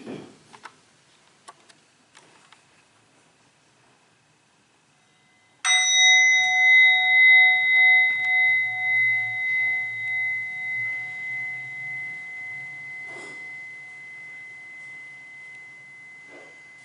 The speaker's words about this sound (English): And just for this brief moment while I invite the bell, practice to just simply enjoy three deep breaths.